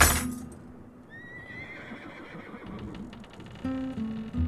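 A horse named Altivo neighs in a loud, drawn-out whinny with a rising, quavering pitch, followed by snorting and a few hoof clops, with no talking.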